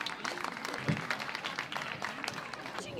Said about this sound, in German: Ganz, ganz herzlichen Applaus und äh, ich bin selber total gespannt. Viel Spaß!